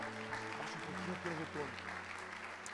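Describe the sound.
A crowd applauds the Lord in worship, a dense wash of clapping with a low sustained tone and some voices mixed in underneath, holding an even loudness throughout.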